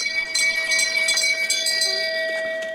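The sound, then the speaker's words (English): A bell rings continuously with a bright metallic tone, struck again and again in quick, slightly uneven succession while its steady ringing overtones sustain underneath. No one speaks. “It's a bell of glory.”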